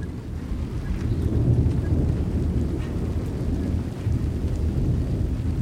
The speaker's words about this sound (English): Before we go, we get drenched by an evening thunderstorm. What begins as a drizzle turns into a downpour, drumming rhythmically on a metal roof.